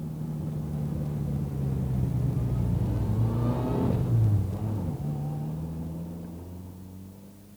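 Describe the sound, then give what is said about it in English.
A car engine rumbles steadily in traffic, then revs up with a rising whine midway before dropping back to a lower, even drone as the vehicle turns around. No one speaks. “Then uh, turn around, first chance you get, and drive back to that last intersection.”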